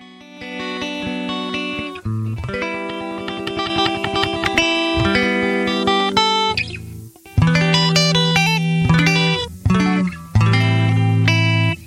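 A burst of break music starts as a talk-show host goes to a break: loud and busy with dense layered tones, distorted guitar-like chords and steady rhythmic pulses, shifting in sections with brief drops before surging again.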